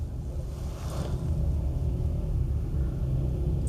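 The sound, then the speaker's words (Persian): A steady low rumble fills the cabin, like an engine heard from inside a moving car, with a soft whoosh of road and air noise and no one talking. “تو ماشین حال کردم تجربه جدیدیه بالاخره”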